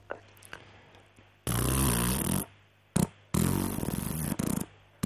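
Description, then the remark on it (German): Two long, loud, raspy farts with a sputtering, broken texture, separated by a short pop, set against a faint low hum with no talking. “Na, ganz klar ein Furz.”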